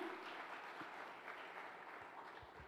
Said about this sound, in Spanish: Vamos, de un aplauso fuerte al Señor